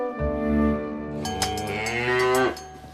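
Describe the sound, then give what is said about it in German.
A cow moos loudly in one long, drawn-out call that rises and swells toward the end before cutting off, with no talking. “Mit einer Kuh.”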